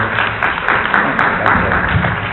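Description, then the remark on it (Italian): Steady, dense applause from an audience answering a speaker's greeting at the start of a talk, a continuous wash of many hands clapping at once with a few sharper claps standing out at a quick, regular pace. “Questo l'applauso con un bentrovate bentrovati, allora basta.”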